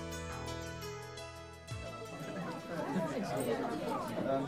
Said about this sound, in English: I'm just listening to the voices in this pub.